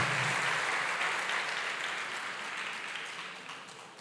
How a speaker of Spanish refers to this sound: Dele fuerte ese aplauso al Señor y colóquese en pie.